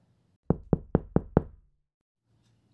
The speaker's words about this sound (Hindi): मैंने देखा वहां एक आलिशान घर था मैंने दरवाज़ा खटखटाया